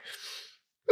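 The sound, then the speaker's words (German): A single breathy sneeze, a burst of air sweeping across the upper range for about half a second, then stopping abruptly; a brief voiced sound follows just before the end. “Gesundheit, ja.”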